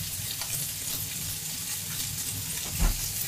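Steady crackling sizzle of sauce for gricia-style spaghetti frying in a pan, a dense hiss with small pops throughout and a brief louder burst near the end, with no voices.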